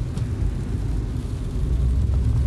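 Steady low rumble of a car's interior road noise while the car is being driven, picked up by a pin microphone, a constant droning hum filling the low end with no voices.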